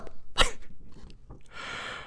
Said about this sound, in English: I, I, I love that moment when you tell a dog to stop barking, but they squeeze a couple more in.